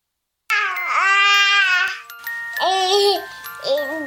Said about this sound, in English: To some people, the sound of a baby babbling doesn't mean much. But that's not necessarily true. By six months, they're combining vowels and consonants. By nine months, they're trying out different kinds of sounds.